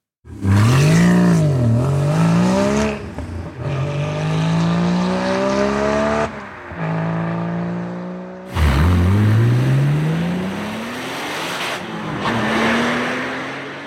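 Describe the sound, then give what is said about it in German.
Engines of famous Porsche GT sports cars rev hard through several rising gear pulls, each climbing in pitch before dropping at the shift, loud and harmonically rich, with a final surge and lingering whine. “Es geht dabei um Motorensounds und zwar um die Sounds berühmter Porsche GT-Fahrzeuge.”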